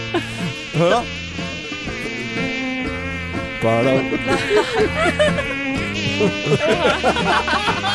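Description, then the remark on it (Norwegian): A loud mosquito-like buzzing drones continuously and warbles up and down through a melodic tune over a lower buzzing line, with a brief spoken word near the start. “Nei, det er en mygg.”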